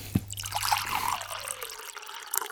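Water is poured into a glass for drinking, a short splashy trickle with a faintly rising pitch as it fills, lasting a couple of seconds and then tapering off.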